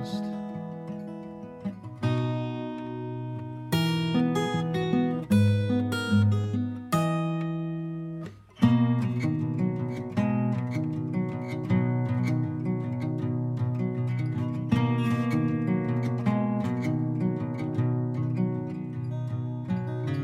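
A recorded song plays steadily at full volume, with sustained, layered instrumental tones shifting through chords, a brief drop near the middle, then a fuller, busier passage. No one speaks.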